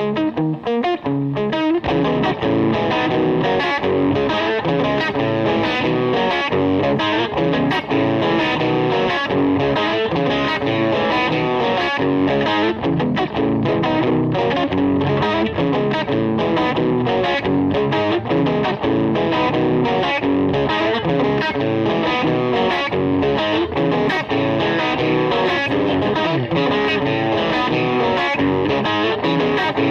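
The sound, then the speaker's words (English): Two heavy distorted electric guitar riffs play continuously and loudly, with chugging, rhythmic palm-muted patterns and dense, saturated tone throughout, no voices present. “So again, it's two riffs, okay?”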